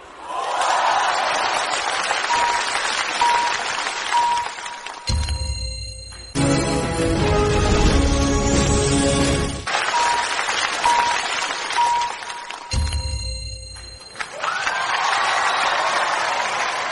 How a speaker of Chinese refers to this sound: 灯光打亮，谢谢大家，谢谢大家送给我的掌声，谢谢。